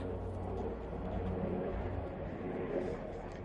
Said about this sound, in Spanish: No sé si escuchará bien. Es un helicóptero. Lleva media hora dando vueltas. O sea, increíble. O sea, ¿qué pasará? Lleva media hora y aparte que no es un helicóptero normal, o sea, quiero decir,